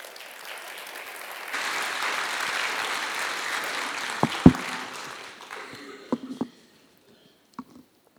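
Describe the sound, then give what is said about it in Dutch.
An audience gives encouraging applause as a woman comes forward to share something about her life, a dense patter of clapping that swells after a soft start, holds for several seconds, then thins out into a few scattered claps and small knocks. “En ik stel voor dat haar even een bemoedigend applaus geven.”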